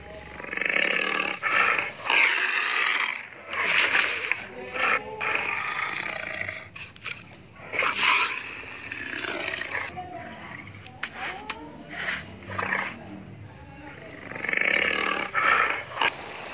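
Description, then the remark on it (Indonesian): A person imitates a tiger's roar with a string of loud, rough, growling vocal bursts, several sustained roars rising and falling over about sixteen seconds. “Sudah mirip suara macan belum ya?”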